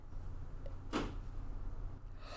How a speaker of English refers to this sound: okay, listeners, there was a sound in the house of Kari opening the door.